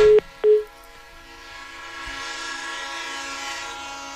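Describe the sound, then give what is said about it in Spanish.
A locomotive horn sounds two short, loud blasts, followed by the steady rumble and droning hum of a train rolling past. No one speaks. “Y no es el tono del teléfono, es la máquina que pita.”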